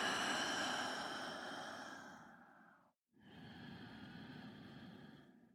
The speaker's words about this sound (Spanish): Vamos a volver a cerrar nuestros ojitos, a regresar a nuestra respiración. Inhalar por la nariz, exhalar por la boca.